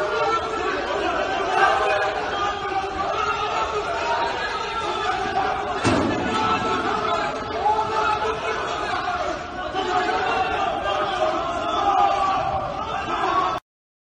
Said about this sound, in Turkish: Bu neyin videosu? Bu e, dün yaşanan bir inşaatta yaşanan bir kazadan sonra yaşanan arbedenin videosu.